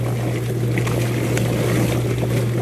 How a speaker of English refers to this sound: The automatic plucker. This thing is literally life changing as a homesteader.